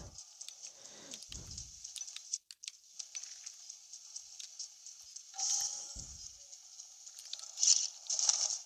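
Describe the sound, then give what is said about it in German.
Steady rain with a thunderstorm in a video game patters continuously in the background, a fine hiss with soft crackles, joined by a few low thumps and brief clatters now and then; no one speaks. “Wie ich Regen und Gewitter hasse.”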